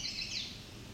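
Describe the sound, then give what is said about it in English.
A male chestnut-sided warbler sings a short, high-pitched phrase, fairly faint, heard alone over a low outdoor background hum with no talking. “That's a chestnut-sided warbler.”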